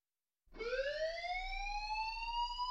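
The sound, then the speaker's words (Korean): A fire alarm installed on a laboratory ceiling lights up and kicks in suddenly, then keeps ringing steadily: a loud, shrill electronic tone with bright harmonics that rises slightly in pitch at onset, without voices. “그 순간 연구실 천장에 설치되어 있던 경보기에 불이 들어오더니 소화 분말이 쏟아져 나왔다.”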